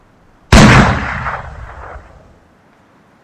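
A single loud blast from a double-barreled shotgun cracks out, then its booming echo rolls away and fades over about two seconds, with no voices.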